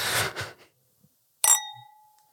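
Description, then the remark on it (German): Wine glasses touch once in a toast with a bright clink whose clear ringing tone lingers and fades over a second, preceded by a soft rustle and then a moment of quiet. “Prost, war ein Geräusch der letzten Woche.”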